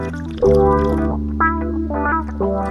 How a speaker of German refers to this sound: Nee, ich habe nur noch zu schlürfen.